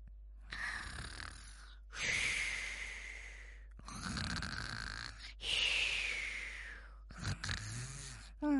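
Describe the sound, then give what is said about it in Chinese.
A voice imitates snoring while telling a bedtime story: about five drawn-out, raspy snores in a steady rhythm, each breathy and moderately loud, with brief pauses between them and no speech. “呼噜呼噜呼噜呼噜。”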